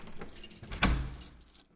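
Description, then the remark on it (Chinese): Keys jingle briefly, then a sharp metallic clack lands as the lock of a home's front door turns and the door is pushed open, followed by a low thud and fading rustle; no voices. “看李潇开了门，就不请自入走了进来。”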